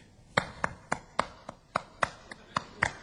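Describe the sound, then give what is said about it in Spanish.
Dancers clap their hands to mark the rhythm, a quick, steady rhythm of about eleven sharp, crisp claps with a few landing harder than the rest, with no voices. “¿No veo que los bailarines se marcan el ritmo batiendo palmas?”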